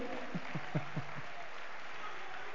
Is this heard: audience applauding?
yes